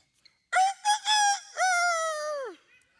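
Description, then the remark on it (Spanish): A person imitates a rooster crowing: a single loud cock-a-doodle-doo with a few choppy opening notes and a long drawn-out final note that slides downward, with no talking. “El gallo cantó.”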